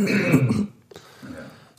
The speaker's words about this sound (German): Warte, jetzt muss ich mich mal kurz räuspern. Schon wieder.